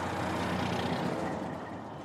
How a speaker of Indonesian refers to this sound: Ternyata, saat sore tiba, banyak truk yang datang berjalan menuju ke pabrik.